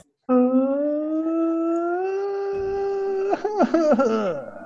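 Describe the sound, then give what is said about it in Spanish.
A voice imitates the mournful wailing of La Llorona: one long, steady, drawn-out cry that slowly rises, then breaks into quavering, sobbing sighs that trail downward at the end. Loud. “para efectos especiales llamen a …”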